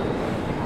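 A brief, steady roar of a Paris metro train, a dense low rumble with hissing upper noise that holds at an even loudness throughout, with no voices.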